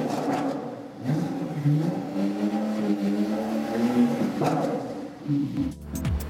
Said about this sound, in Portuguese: Esse é o ronco tradicional do ronco carro. Ronco normal. É. Agora, vira esse manete. Acelera, olha a diferença do escape.